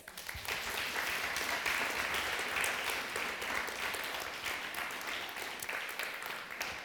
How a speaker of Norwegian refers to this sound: Skal vi gi henne en applaus?